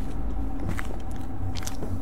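car driving

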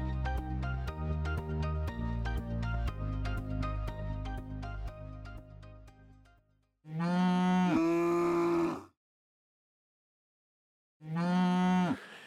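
cows mooing

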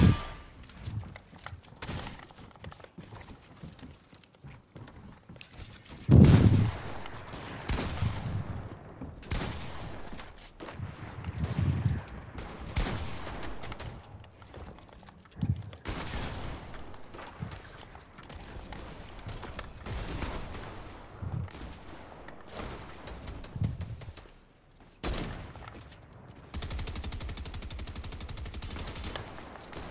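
video game gunfire

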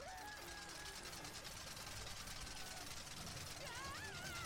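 air conditioner humming

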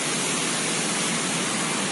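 rushing floodwater

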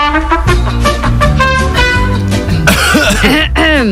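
cough

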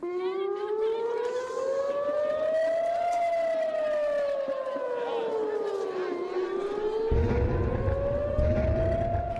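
air raid sirens sounding

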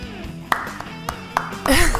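clapping

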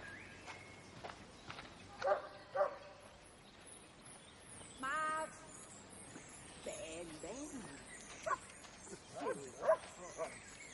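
dog barking

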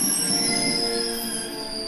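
train running on rails

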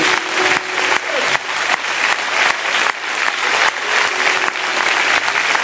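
loud audience applause

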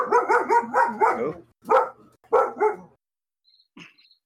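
dog barking loudly

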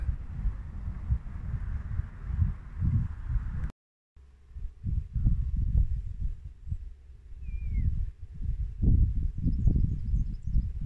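strong wind outdoors

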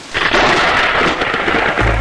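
rain

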